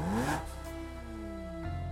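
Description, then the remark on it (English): A sports car, a spider race car, revs up sharply with a rising whine, then settles into a steady drone as it pulls away to drive north fast, fairly loud with no voices. “So they head off, grab coffee and donuts, and drive north. Driving fast, always fast.”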